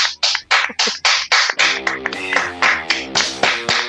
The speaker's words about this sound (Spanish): Les vamos a dar un aplauso a todos nuestros oyentes. ¡Bravo!